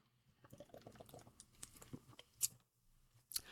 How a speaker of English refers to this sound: Let me take a sip of this beer.